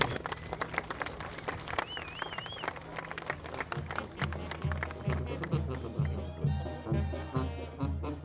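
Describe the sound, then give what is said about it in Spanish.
A crowd applauds steadily for several seconds to welcome a team of Triqui children, dense clapping filling the space, with a brief wavering whistle early on and a rhythmic low thumping underneath in the second half. “bienvenida a todos, especialmente a la selección de los niños triquis que estábamos esperando todos, lo cual quisiera pedirles un fuerte aplauso para ellos.”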